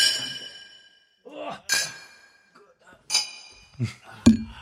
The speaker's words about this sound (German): So direkt nochmal dem Mikrofon zugeprostet.